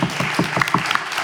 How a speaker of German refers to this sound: Beifall.